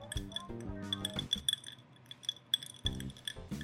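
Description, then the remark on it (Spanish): Glasses clink together for a drink: a series of bright, ringing chimes spread across a few seconds, fairly loud, mixed with low clattering and handling sounds. “Este sonido yo sé que siempre les va a dar sed de la mala.”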